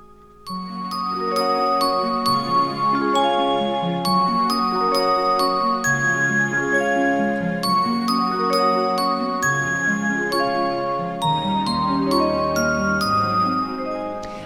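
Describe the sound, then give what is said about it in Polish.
An outgoing phone call, placed a second time to return a call that rang for half a second and dropped, rings through as a bright, tinkling melody of chime-like notes, playing continuously and fairly loud from start to finish, with nobody speaking over it. “To zadzwonię jeszcze raz.”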